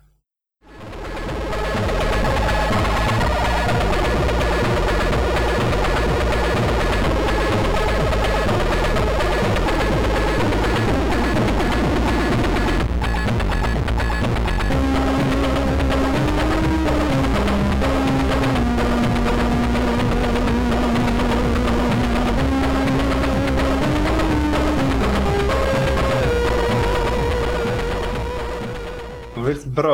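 A buzzy, harsh chiptune melody from the game Cybernoid 2, played on a VIC-20 home computer, sounds loudly and continuously for the whole stretch, its stepping square-wave tones sliding over a dense, grating background with no voices.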